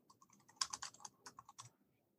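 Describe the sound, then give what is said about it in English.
Rapid clicking of keys on a computer keyboard as someone types a search into Google, a quick irregular burst of taps with a few louder strikes in the middle and no voices. “So I'm typing Coolest guy. Coolest guy in SEO.”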